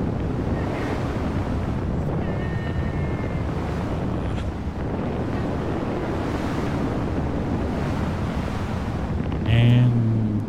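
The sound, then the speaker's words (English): Roaring hurricane wind and crashing surf make a constant, loud wall of noise with heavy gusts buffeting the microphone, swelling into a sharper burst near the end. “Sounds like he got blown away.”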